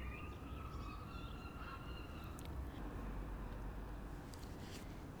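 Thin, faint bird calls and whistles, heard from the stoop of a flat in Scotland, drift over a steady wash of outdoor background noise, with a few brief chirps rising out of the murk now and then.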